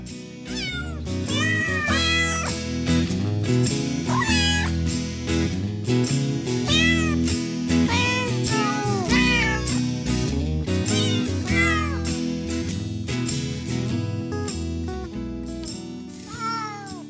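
A long run of cat meows, many overlapping and bending up and down in pitch, some high and whiny, sounding over a steady low humming background with no talking.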